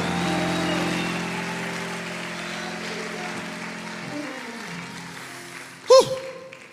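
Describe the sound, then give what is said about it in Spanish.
An audience applauding for Jesus during a church service: dense, steady clapping over a sustained low hum, thinning out after about four seconds, then a brief loud thump near the end. “Mira, aplauda, dale un aplauso a Jesús si quiere, gloria a Dios.”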